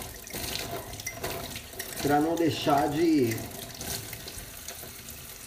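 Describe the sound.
Tap water runs steadily in a sink as someone washes dishes, a continuous hiss throughout, with a person talking over it partway through.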